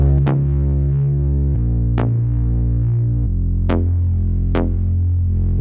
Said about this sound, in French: C'est, ça agit comme un pluck en fait, c'est une, une, basse un peu moog. Elle est là juste pour faire groover tout simplement, ça donne un petit aspect euh, plus soleil, je dirais. Si on joue les deux basses ensemble, ça donne ça.